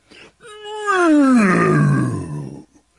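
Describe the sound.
A narrator's voice imitates a lion's roar: one loud, drawn-out growling cry that starts high and slides steadily downward in pitch over about two seconds, with a short grunt just before it.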